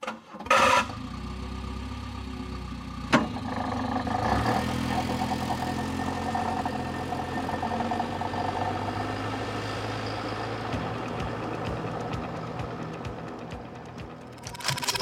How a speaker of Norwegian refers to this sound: Ja, da er det tid for Volvo Amazon de neste to timene her på NRK Alltid Contentum. Nærmere bestemt Volvo Amazon 1969-modell starter opp og kjører av sted.